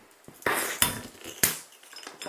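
A bottle of Kupferbier being opened: a brief fizzing hiss with no pop, as there is no pressure in the bottle, alongside a couple of sharp metallic clinks from the cap and opener, and no talking.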